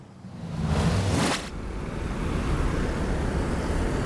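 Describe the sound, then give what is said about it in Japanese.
A dense roar of moped traffic passing under a highway bridge, with one loud moped sweeping past early on, then a steady wash of engines and rushing wind continuing without pause. “え今高速道路の、え橋の下あたりなんですけどいますねめちゃくちゃ原付来てますすっごい風なだれ込んできて一発が流れ込んでくる”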